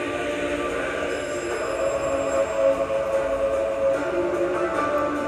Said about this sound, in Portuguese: mais uma vez, esse alarme, esse toque, avisa que tem alguma parte que ainda está obscura e que você pode transmutar nesse amor e nessa paz com que você se conectou agora.